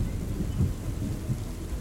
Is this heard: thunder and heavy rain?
yes